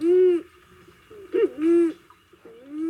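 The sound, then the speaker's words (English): A pigeon's call plays back from a recording in a living room: low, hollow cooing notes in three drawn-out phrases separated by brief pauses, clear and fairly loud with no voices. “In his living room, he plays us a recording of the pigeon's call.”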